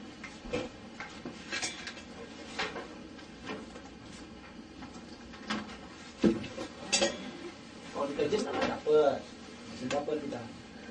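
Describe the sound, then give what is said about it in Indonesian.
Spoons and dishes clink and clatter in scattered, irregular bursts, growing busier toward the end, with faint indistinct voices murmuring in the background. “sendok sendok itu ya”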